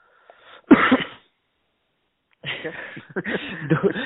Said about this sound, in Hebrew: עדיין משתעל כפי שאתה שומע.